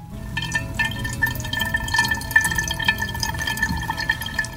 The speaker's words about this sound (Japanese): はい、えー、1投目は 100ml のお湯を入れましただいたい30秒に1回ぐらいのタイミングでお湯を入れてきます